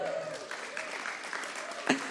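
Sustained audience applause, a dense steady patter of many hands clapping at an even level, with a brief sharper burst near the end.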